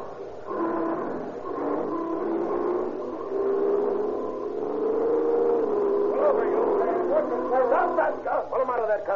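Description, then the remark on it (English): A car engine drones steadily and then revs up, its pitch climbing as it accelerates after a gray Ford roadster, loud, with sharper yelping sounds near the end. “Give us the gun.”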